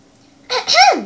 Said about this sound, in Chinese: …清了清嗓子，开始上课了。